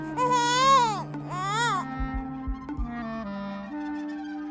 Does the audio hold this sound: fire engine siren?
no